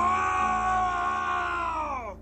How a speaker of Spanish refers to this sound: Abrí la puerta y vi a un policía levantar algunas cosas. Se dio la vuelta y me vio, gritó